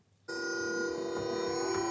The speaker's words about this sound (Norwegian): Dette er lyden av sjakk. På Teknisk museum i Oslo sitter en far og en sønn over et tilsynelatende vanlig spillbrett. Men de sitter svøpt i elektronisk lyd som endrer seg når de flytter brikkene.